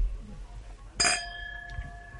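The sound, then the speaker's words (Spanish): Two wine glasses clink together once in a bright toast, the sharp ring sustaining and slowly fading. “esto es lo que nosotros queremos que escuchen nuestros oyentes porque esto, este brindis va dedicado a todos los que nos escuchan hoy”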